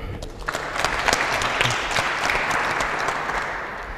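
An audience applauds steadily, a dense wash of many hands clapping at a fairly loud, even level that holds for the whole stretch without voices over it.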